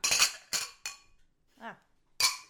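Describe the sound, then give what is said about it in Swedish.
Glasses clink together in a toast, four bright ringing chinks spread over a couple of seconds, fairly loud, with a short vocal exclamation between them. “Ja, nu är det skål för Lussan. Skål, skål för Lussan!”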